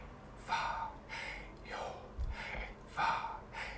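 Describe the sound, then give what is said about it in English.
A person breathes audibly in and out several times in a slow, steady rhythm, each breath a soft airy rush, alone without talk. “And that there were some sages and rabbis of old that said that it was impronounceable because you couldn't say the name of God, but actually, some also said it was the sound of breathing.”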